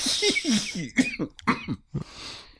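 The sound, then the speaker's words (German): A loud cough bursts into the microphone in several harsh, rapid barks, followed by a breathy exhale as it trails off. “Nochmal laut ins Mikrofon gebellt.”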